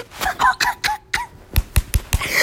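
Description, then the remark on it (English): A voice imitates the water droplet sound heard in songs with drops: a quick, uneven run of about nine wet mouth pops and clicks, some with a short pitched bloop, fairly loud with no talking. “Like I don't really like EDM music, but I like songs that have like drops and like bass and like I don't know, you know that like water droplet type sound? It's like, I can't do it, but it's like.”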